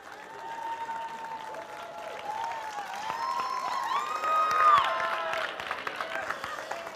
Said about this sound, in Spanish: Fuerte el aplauso del Señor ahí en esta mañana.